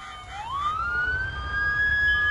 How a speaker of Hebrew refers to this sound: קול של סירנה של אמבולנס?